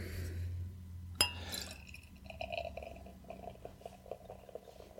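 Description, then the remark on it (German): A freshly rinsed glass clinks sharply, then a short splash as a little leftover water is tipped out, followed by faint gurgling and dripping sounds. “Oh, da ist ja noch Wasser in dem Glas. Entschuldigung. Ein Tropfen.”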